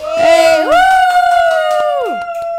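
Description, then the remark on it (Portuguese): A small audience cheers, with sustained high whooping voices that rise at the start, hold a loud steady pitch for about two seconds, then slide down as the cheer fades. “Com plateia, meus amores, que a gente está muito chique”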